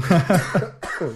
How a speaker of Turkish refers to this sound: Pardon ben devam edecektim de çok konuşmak istemiyorum çünkü ha, öks- ha, öksüreceğim.